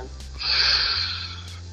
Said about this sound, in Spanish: y bueno, tú inhalas por la nariz y al exhalar, vas a exhalar esta vez por la boca, pero esa es la, es la respiración del león, pero la vas a hacer